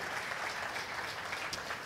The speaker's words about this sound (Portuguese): Vamos aplaudir a Deus pela vida da nossa irmã.